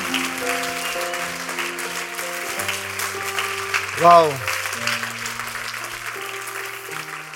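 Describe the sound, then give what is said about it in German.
Sustained audience applause at a Christmas celebration for the crew behind the cameras, a steady wash of clapping, with held musical tones underneath and a single voice exclaiming briefly midway. “Geben wir nochmal allen zusammen hinter die Kameras einen herzlichen Applaus.”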